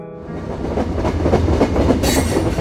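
A morning train to Sussex rumbles steadily along the rails, its wheels clattering in a rhythmic clickety-clack, loud, with a brighter hiss of rushing air building near the end.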